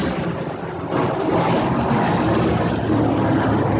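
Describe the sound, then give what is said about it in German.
A loud, steady roar of an airplane coming in and passing overhead, a dense rumbling wash of engine noise that swells slightly and holds, with no voices. “Hier kommt gerade ein Flugzeug rein.”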